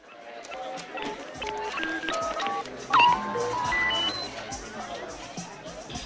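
A quick series of short electronic tones at shifting pitches, like phone keypad beeps, plays over a busy background of crowd chatter and murmur, with one brief louder blip midway, as Deckard places a video phone call to Rachel from a bar.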